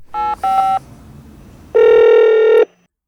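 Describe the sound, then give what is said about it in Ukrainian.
Two short electronic keypad tones beep in quick succession as a phone number is dialed on a smartphone, then after a brief pause a longer, steady ringing tone sounds for nearly a second while waiting for an answer, before cutting off into silence. “Дмитро набирає номер телефону на смартфоні та чекає відповіді.”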